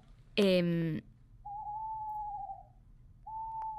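An owl hoots: one short, rough, throaty call, then two long, steady, clear tonal hoots separated by a brief pause. Heard against a quiet background, with no talking.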